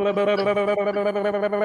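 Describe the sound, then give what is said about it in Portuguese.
A voice imitates a helicopter with a steady, buzzing hum broken into rapid rhythmic pulses, like whirring rotor blades, held at one pitch for under two seconds. “Faz assim na boca, pô. Isso é um helicóptero.”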